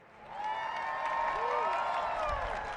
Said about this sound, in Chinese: 在点灯仪式之后，围观的人们欢呼鼓掌庆祝这一历史性的一刻。